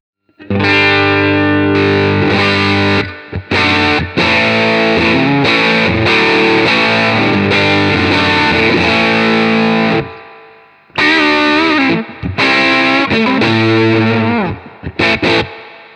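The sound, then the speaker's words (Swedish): A loud, heavily distorted electric guitar through a Red Lama distortion pedal, set with volume at unity and high cut and drive at twelve o'clock, plays thick sustained chords with a few quick cuts, falls silent briefly, then returns with choppier strummed chords. No one speaks. “Eh, High cutten står rakt upp och driven står rakt upp, bara för att börja någonstans.”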